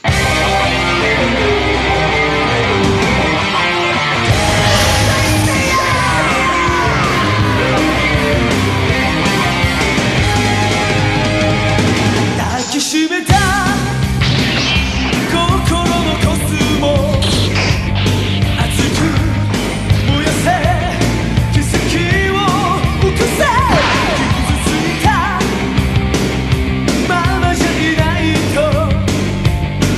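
A loud, densely layered pop song plays on its own, full band with a steady beat and melodic lines, briefly dropping out for a moment partway through before surging back in.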